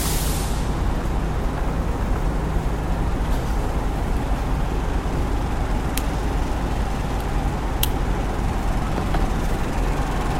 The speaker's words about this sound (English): Let me get a little Grifino uh, cigarillo going here cigar action. Excuse me while I light my cigar.